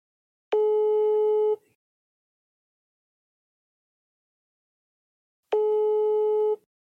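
An outgoing call's ringing tone sounds twice, each steady electronic tone lasting about a second and separated by a long silent gap. It is clear and fairly loud, with no talking.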